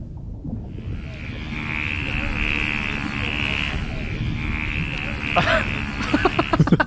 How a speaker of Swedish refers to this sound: Ja, det är en delfin Nej. faktiskt.